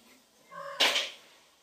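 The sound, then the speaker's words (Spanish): A cat gives a short, close meow, a brief tonal cry that breaks into a breathy, hissing burst before fading into quiet room noise. “esta, gata, por ejemplo, no, sabías eso, ¿no? No le anda bien el lagrimal.”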